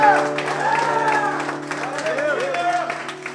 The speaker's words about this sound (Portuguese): Vamos aplaudir o Senhor porque é o vigésimo já.